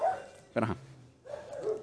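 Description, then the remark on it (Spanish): Dogs barking: one sharp, loud bark stands out midway, surrounded by softer, drawn-out yelps and whines before and after, with no talking. “putos perros.”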